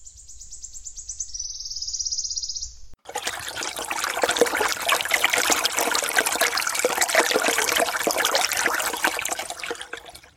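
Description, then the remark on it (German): A high, steady insect buzz for a few seconds gives way to a continuous trickle of spring water from several springs splashing and bubbling into a small pond at the edge of a moor and marsh landscape, with no voices. “Wir sind hier an, am Rande einer Moor- und Sumpflandschaft und das Wasser kommt hier aus mehreren Quellen direkt in diesen kleinen Teich hier vorne geflossen.”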